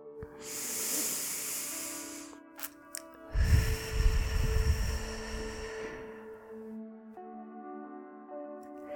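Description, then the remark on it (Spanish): A slow, airy inhale through the nose is followed by a longer, heavier exhale through the mouth, both breathy, with soft sustained musical tones underneath and no talking. “Vamos a empezar respirando profundamente, inhalando por la nariz y exhalando por la boca tres veces.”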